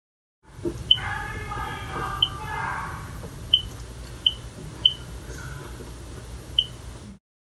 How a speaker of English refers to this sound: I think it's pretty cool that they were able to do that sound on a home console, even if it is just simple beeps.